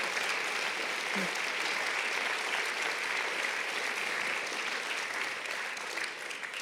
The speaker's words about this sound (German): Come on, give God a praise. Gebt Gott ruhig einen Applaus.